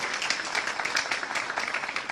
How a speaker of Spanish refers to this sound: Aquí las mujeres desean un aplauso. Las mujeres. Son ustedes.